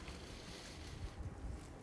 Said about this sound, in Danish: Åh, oh, det blæser meget her.